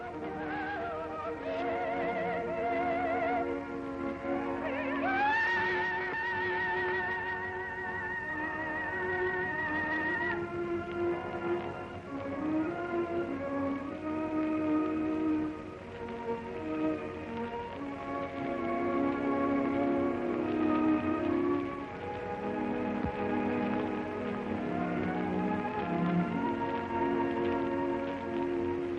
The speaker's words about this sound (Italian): canta ora il soprano signora Gabriella Gatti.